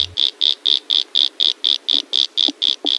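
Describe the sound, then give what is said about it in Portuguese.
A pumpkin toadlet (Brachycephalus), a tiny frog smaller than a 50-centavo coin, calls with a steady series of short, high-pitched buzzy notes, about four per second, heard clearly with no voices. “Esse que você está ouvindo é o som do sapinho Pingo de Ouro.”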